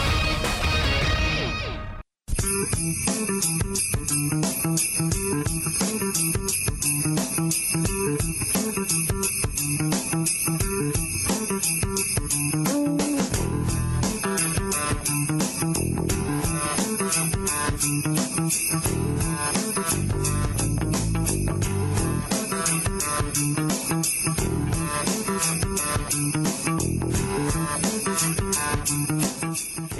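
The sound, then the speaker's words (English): The Rob Sellers Funky Bump of the Day, a funky music bump played on ESPN Central Texas radio (104.9 FM) on a Friday, plays loudly and continuously for about half a minute after a brief silent gap, with steady rhythmic beats and bright upper tones and no voices over it. “is the Rob Sellers Funky Bump of the Day on this Friday.”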